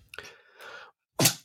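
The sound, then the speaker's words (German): A single sneeze by a woman: a drawn-out, wavering intake of breath followed after a short pause by one sharp, explosive burst, with no talking. “Ah, Gesundheit.”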